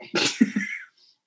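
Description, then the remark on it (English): A single fairly loud sneeze: a quick breathy burst with a voiced, choppy tail that cuts off abruptly, followed by silence. No one talks. “And she's like, I'm like, are you going to sneeze again?”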